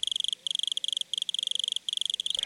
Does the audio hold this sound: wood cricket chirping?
yes